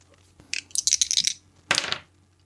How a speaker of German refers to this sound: Na dann würfel mal.